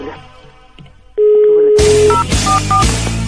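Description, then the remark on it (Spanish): A steady dial tone hums briefly, then several quick telephone keypad beeps follow in an uneven sequence as a phone number is dialed to call someone, clear over a loud, rushing background noise. “Vamos a marcarle, compadre.”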